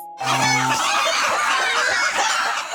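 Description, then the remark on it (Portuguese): A dense, continuous chorus of many chickens clucking and squawking together at a poultry farm holding thousands of birds, loud, filling the whole stretch without pause; no one speaks. “Os remédios que esta multidão de frangos absorve não desaparecem.”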